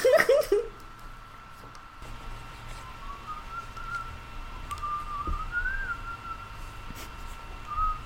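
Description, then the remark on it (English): Someone whistles a wandering melody from police songs at a soft, steady level for several seconds, following a brief burst of laughter at the start, with a low background hum throughout. “I'm just gonna whistle police songs to you while you.”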